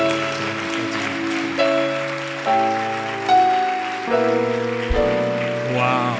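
An audience claps continuously, a dense, even patter running through the whole stretch, while sustained musical chords play underneath and shift every second or so.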